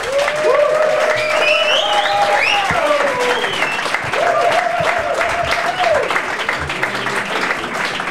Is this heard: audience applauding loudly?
yes